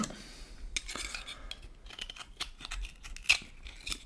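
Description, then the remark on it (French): A knife scrapes and pries at an oyster shell, with a run of sharp gritty scrapes and small metallic clicks at irregular intervals, and no one talking. “Décaloter le petit pied, porter l'huître à sa bouche et la déglutir.”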